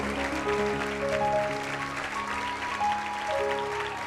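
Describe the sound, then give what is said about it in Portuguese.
A church audience applauds the Holy Spirit steadily throughout, a dense continuous patter of many hands clapping, while sustained organ or keyboard tones hold underneath. “Aplauda o Espírito Santo aí, meu filho.”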